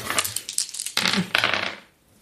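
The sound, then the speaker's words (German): Several rapid clattering bursts of dice tumbling and knocking together, fairly loud, then settling into quiet, as the dice are rerolled. “Ja, dann würfeln wir doch nochmal neu.”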